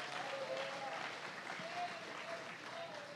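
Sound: audience applauding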